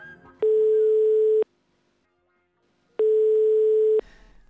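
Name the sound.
telephone ringing tone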